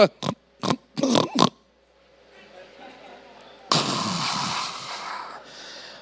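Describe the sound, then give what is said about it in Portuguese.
A voice imitates snoring, as of a person with sleep apnea, with four or five quick, rough, snorting bursts, followed by a brief lull and then a longer, steady rush of breathy noise. “Ah, normalmente ronca, né?”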